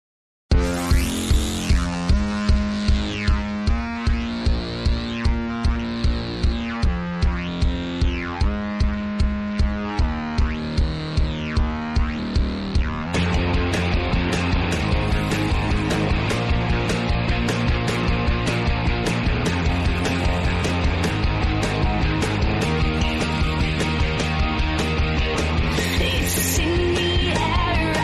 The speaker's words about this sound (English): I'm going to play this song real quick. Take a quick break.